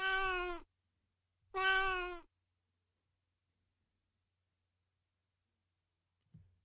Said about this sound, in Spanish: Pero luego oí el maullido de un gato y me tranquilicé.